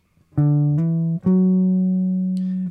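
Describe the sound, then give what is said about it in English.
A clean electric guitar plays three ascending notes of a scale pattern on one string, starting from D at the fifth fret of the fifth string, the first picked and the next slurred on smoothly like hammer-ons, with the last note ringing out sustained for over a second. No talking. “Uh, if I start from the fourth note, the D, on the fifth fret of the fifth string, see how I'm hammering on the first two uh, uh, of the pattern on the string and then playing the remaining note.”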